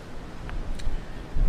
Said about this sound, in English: it's a little windy out here.